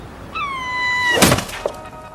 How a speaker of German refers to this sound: Das war übrigens ein toter Vogel, der da gerade vom Himmel gefallen ist.